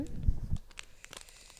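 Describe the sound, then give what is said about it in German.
A brief burst of crinkling from a fortune cookie's plastic wrapper as the cookie is handed over as a guest gift, with a low thump at the start and then scattered crisp crackles that fade over a second or so. “Und ähm, die, die öfter reinhören, die kennen das schon, das knistert schön.”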